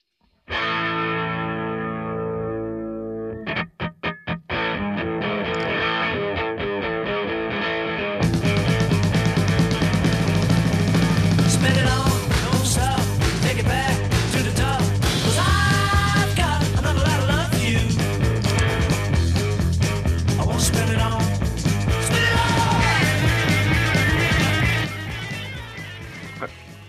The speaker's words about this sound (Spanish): Bueno, vamos a seguir escuchando este tema